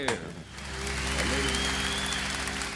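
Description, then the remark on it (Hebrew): A large crowd applauds and cheers loudly and steadily, a dense wash of clapping with shouts mixed in, as from a live concert audience. “קריאות כפיים!”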